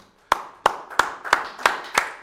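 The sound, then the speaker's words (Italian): Six sharp hand claps in a steady, even rhythm, about three per second, crisp and fairly loud with no voices over them, like one person starting a round of applause for the guest Manu. “Io farei un applauso a Manu”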